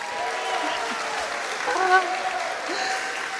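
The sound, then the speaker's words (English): A large crowd at a livestreamed worship service at New Life church applauds steadily, dense clapping with scattered cheers and whoops rising above it, swelling briefly near the middle before holding at a constant roar. “Let them hear your voices, guys.”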